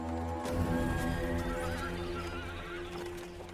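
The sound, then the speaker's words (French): A horse whinnies loudly, its high, shaky neigh sliding over the steady clip-clop of hooves and the rumble of a cabriolet carriage, driven by Flaubert, rolling toward Rouen at nightfall, with no voices. “La nuit tombe, il conduit le cabriolet qui le ramène vers Rouen, lui et son frère, quand il s'écroule.”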